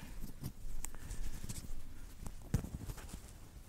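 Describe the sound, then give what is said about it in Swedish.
Scraping and knocking handling noise as a microphone is fumbled and repositioned, with a few sharper thumps and rustles scattered unevenly over a few seconds; no one speaks. “jag ska försöka få ordning på micken här.”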